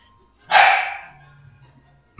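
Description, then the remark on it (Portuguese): A small dog named Leia lets out a single sharp, high-pitched bark that trails off quickly during a class recording, with quiet background before and after. “A Leia tá assim, ela quer fazer parte da gravação não Vale do Latido.”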